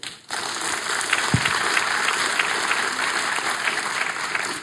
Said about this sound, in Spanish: Ah, sí, póngase de pie. ¿Usted, mi hermana, está contenta con este matrimonio? Un aplauso por ella.